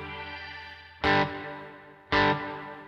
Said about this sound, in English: you get kind of a flat reverb there.